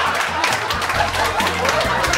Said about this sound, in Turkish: Aa ya lütfen alkışlamayın o kadar da süper biri değil.